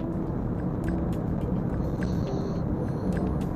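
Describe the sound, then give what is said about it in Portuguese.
Steady, dense low rumble of road noise from inside a car moving in heavy traffic at 4:26, at the start of the Paralela avenue, with occasional faint clicks and a thin high whine over the top; no one speaks. “Na hora dessa, 4h26 e o trânsito já tá daquele jeitão.”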